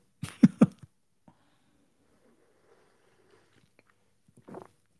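Someone takes a sip of a drink, the official sip of the day on the Damon Bruce show: two quick wet slurping bursts, a quiet pause with faint rustling, then one more short swallow near the end. No talking.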